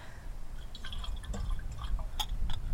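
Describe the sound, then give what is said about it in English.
Water sloshes and trickles, with a scatter of small bright splashes and drips over a steady low rumble. Nobody speaks. “Greg gave me a little extra water”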